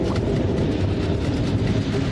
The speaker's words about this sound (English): right above the subway!